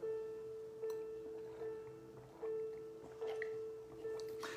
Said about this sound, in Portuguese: Estou enchendo meu copo com água aqui, viu?